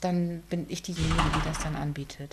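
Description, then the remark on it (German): A woman speaks while a dull, heavy thud from a door slamming somewhere in the background rumbles briefly under her voice. “Ja, liebe Zuhörer, wenn Sie das Donnern im Hintergrund hören, das sind Türen, die hier knallen.”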